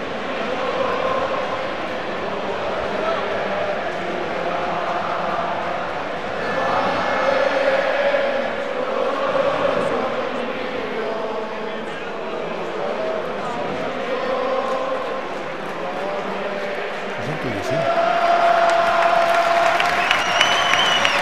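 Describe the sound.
A large stadium crowd of Levante fans sings the Levante club anthem together after a victory, a dense wash of voices with a steady melody, swelling toward the end as clapping and cheering rise over the singing.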